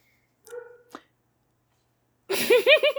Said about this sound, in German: guckt, dass der Hund nicht mehr in die Aufnahme bellt.